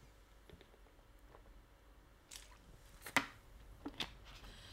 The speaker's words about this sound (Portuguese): Eu preciso de, de, beber um bocadinho, um bocadinho de água